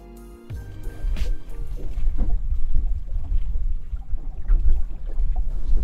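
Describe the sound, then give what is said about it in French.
A small fisherman's boat rocks and knocks on the water of Lake Annecy as people step aboard before sunrise, with hollow thumps, creaks and sloshing under a steady low rumble. “Le soleil s'est pas encore levé, le bateau nous attend. Allez, on embarque.”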